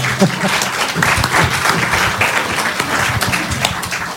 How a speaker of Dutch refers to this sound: Ik hoor dat er in ieder geval één iemand voor wil applaudisseren. misschien zijn er mensen die zich erbij willen aansluiten.